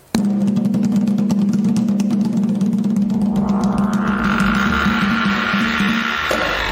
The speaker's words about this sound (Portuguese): É o que abre a porta e fala: senta, que lá vem Macumba? É esse aí. Vamos rodar a vinheta.